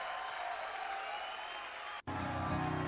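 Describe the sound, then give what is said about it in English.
A live concert crowd cheers and applauds at an unplugged concert recording released in 1996, a loud, steady roar of clapping and voices, broken by one abrupt split-second dropout before the cheering resumes with a low hum underneath. “So I'm gonna fast forward through this first like minute or so. Okay. Through this cheering.”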